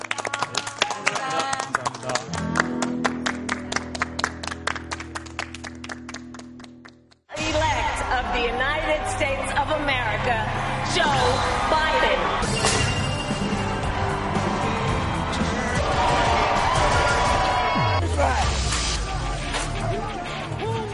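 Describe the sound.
A crowd applauds with dense, rapid clapping for several seconds over a low, steady musical hum, then the sound cuts abruptly to a busier mix of music and voices.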